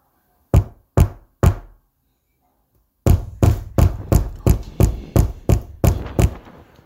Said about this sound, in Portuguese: Muitas batidas, muitas batidas, elas propagam, elas não estão mais só na porta, elas estão nas janelas, as janelas começam a tremer, o que está acontecendo?